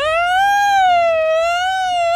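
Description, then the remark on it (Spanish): A voice imitates an ambulance siren, holding a steady, slowly wavering wail for about two seconds, fairly loud with no other talk over it. “No me acuerdo cuál era el aspecto de ambulancia, que le hacemos igualito.”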